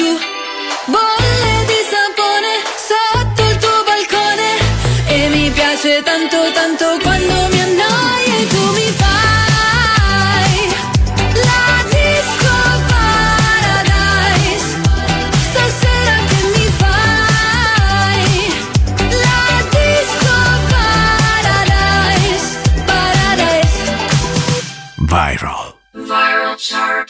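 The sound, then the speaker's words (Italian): A loud pop song with singing over a steady driving beat and full backing instruments plays continuously, then cuts off abruptly just before the end; the song is number four on a chart, a former number one that dropped one place. “Al numero 4 abbiamo appena ascoltato una canzone in discesa di un posto, una ex numero 1,”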